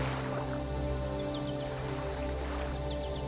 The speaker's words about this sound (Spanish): Ahora estás de pie en un valle encantador. Puedes escuchar el sonido del agua los pájaros.